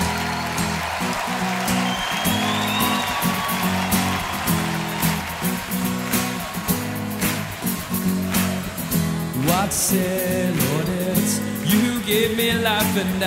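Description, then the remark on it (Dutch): A full-band worship rock song from a worship band's first album, released in 1999, plays loudly throughout, driven by distorted electric guitars over a steady pounding drum beat, with dense, sustained chords and no talking over it. “Lekker gitaartje.”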